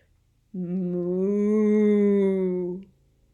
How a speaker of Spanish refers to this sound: Es una vaca. Paula y Bobo corren a la vaca. Ellos encuentran la vaca en el pasto.